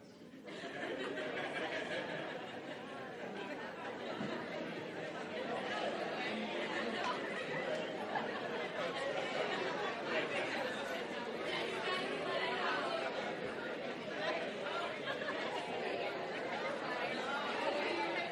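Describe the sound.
A roomful of people talking at once in small groups for about 45 seconds, each telling of a place they did not want to be, a steady overlapping murmur of conversation with occasional laughs rising out of it, sustained throughout at an even level.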